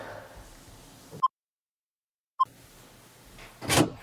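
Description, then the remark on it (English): Two short electronic beeps, separated by a stretch of silence, are followed by a front door opening with a brief clatter over low room noise. “Do you want to get the door, bud?”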